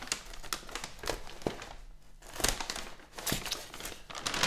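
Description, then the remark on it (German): A bag holding wrestling DVDs crinkles and rustles, with irregular crackling bursts and a few sharp clicks as it is handled and opened, steady and fairly loud throughout with no talking. “Er bringt mir gerade eine Tüte. Da ist alles drin. Ich guck rein.”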